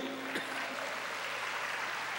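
An audience applauds God, a dense, steady wash of many hands clapping that holds at an even level for the whole couple of seconds, with a faint tonal hum near the start.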